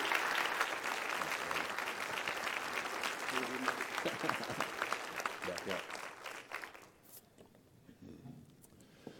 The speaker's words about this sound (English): give a huge round of applause, and a welcome to Tim Crist as he comes?